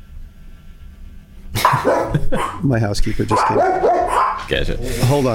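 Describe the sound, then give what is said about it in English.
A pet dog barks repeatedly and loudly, the sharp barks overlapping with people talking and laughing after a quiet opening moment. “That's my dog”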